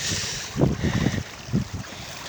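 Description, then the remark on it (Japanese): A babbling stream runs steadily, a constant bright rush with irregular low gurgles and splashes surging up every half second or so. No one speaks. “水のせせらぎの音がね、今日もせせらってますね。”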